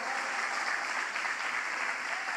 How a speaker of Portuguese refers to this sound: Aleluia. Pode aplaudir o Senhor.